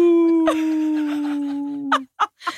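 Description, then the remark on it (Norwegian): A person playing the wolf imitates a wolf howl, one long steady sustained note held for about two seconds, fairly loud, followed by a few short breathy yips or sounds. “Det var jeg som var ulven.”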